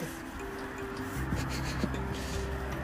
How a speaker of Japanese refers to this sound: スマホ振ってると音がねあごめん